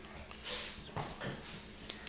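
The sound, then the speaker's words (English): Dogs bark, a handful of sharp, faint yaps scattered irregularly over a couple of seconds, with no one speaking nearby. “And um, here go the dogs. They know we're recording.”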